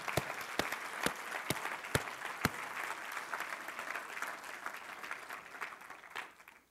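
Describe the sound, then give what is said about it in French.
An audience breaks into steady applause to acclaim the Lord, dense overlapping claps with a few sharper, louder claps standing out early on, then the clapping gradually thins and fades out. “Ça mérite qu'on lui donne une main acclamation.”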